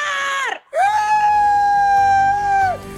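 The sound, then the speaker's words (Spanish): A loud, sustained high-pitched cry rings out in two bursts, a short yelp then a long held wail with a wavering tone, a festive Mexican grito shouted by a woman from Culiacán, Sinaloa. “Dile a toda la gente, pero que se escuche esta Culiacán, hija, ese grito.”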